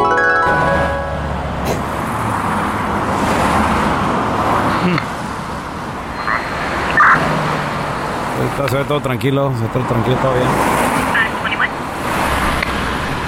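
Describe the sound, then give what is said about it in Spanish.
A car, a red sports car, approaching on a road at night, its engine and road noise rumbling steadily in the distance, a broad, constant hum beneath a man speaking quietly over it. “Espérate, mira ese carro que viene ahí a lo lejos.”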